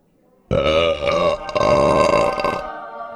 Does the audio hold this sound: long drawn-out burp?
yes